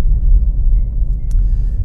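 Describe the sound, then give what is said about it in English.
A steady, heavy low rumble of snow tires rolling over a rough, icy road from inside a moving car, dense and continuous with a faint brief click partway through. “Snow tires are meant for driving in the snow and on the ice, which I'm driving on right now, which is why the road sounds so rough and noisy.”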